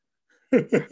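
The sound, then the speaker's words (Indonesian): Two quick, loud clucking bursts from a chicken, one right after the other, with nothing else around them. “Ini berisik ini ada ayam tuh kan berisik.”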